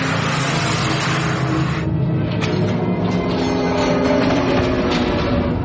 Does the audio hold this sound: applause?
no